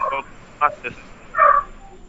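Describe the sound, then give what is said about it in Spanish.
A dog barks four times in short, irregular bursts, a longer bark closing the sequence, over a low background hiss. “Ah, pero está ladrando un perro por ahí, ¿quién es?”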